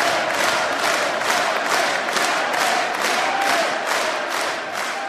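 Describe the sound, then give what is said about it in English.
A loud crowd chants and cheers for former Baylor head coach Art Briles without letup, the roar pulsing in a steady rhythm of quick beats, with no clear single voice standing out. “Give this fool a round of applause. Chant for him.”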